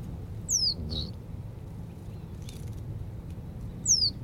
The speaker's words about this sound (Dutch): Oh, hoor je dat? Dat metalen geroepje was een rietgors.